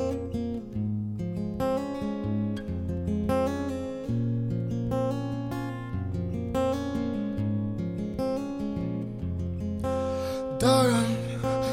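A song's instrumental intro plays steadily and fairly loud, with a deep repeating bass line, rhythmic chords and a bright crashing swell near the end, no voices.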